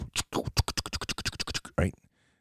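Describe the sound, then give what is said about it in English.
A voice imitates a steam engine with a quick, steady run of about fifteen chuffing bursts, ending in a longer breathy puff before falling silent. Fairly loud. “And if you've ever been around a steam engine, it makes all sorts of noise.”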